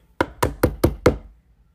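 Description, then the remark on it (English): Five sharp knocks on a door in a quick, even rhythm, fairly loud, followed by quiet. “I was like, yo, someone knocking at the door.”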